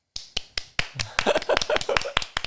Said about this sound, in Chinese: 好来，我们就是为外送员给一个鼓掌吧，好不好？